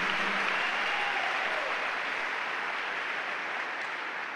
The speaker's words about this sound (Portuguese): Aplauda o Senhor por essa equipe, por Jesus, pelos dons do Espírito.